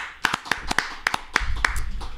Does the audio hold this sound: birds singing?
no